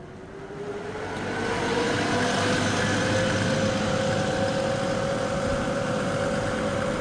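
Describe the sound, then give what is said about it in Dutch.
A large bus carrying 34 passengers idles steadily with a low rumble and a faint whine, swelling slightly in the first second, then holding constant. No one speaks. “zeer hartelijk welkom in deze hele mooie bus.”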